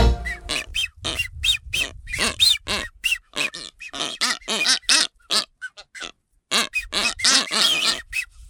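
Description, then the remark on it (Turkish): Blue-footed booby calls: a rapid series of harsh, grunting squawks and whistling honks, loud, repeating in bursts with brief pauses, no talking. “Duyduğunuz bu ses mavi ayaklı sümsük kuşunun sesi.”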